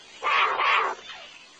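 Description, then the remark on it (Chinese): A jaguar cub's call: two quick, raspy mid-pitched cries run together, fairly loud, followed by a softer, fading trailing note. No one speaks. “那是美洲虎宝宝的叫声吗？”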